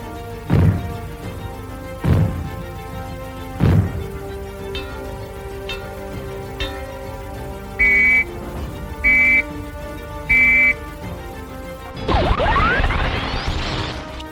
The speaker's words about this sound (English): If the fallout warning sounds are heard, they will be like these.